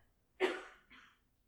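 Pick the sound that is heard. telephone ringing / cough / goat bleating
cough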